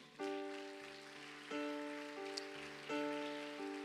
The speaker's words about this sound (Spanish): ¿Cuántos dicen gloria a Dios? ¿Le da palmas fuerte al Señor?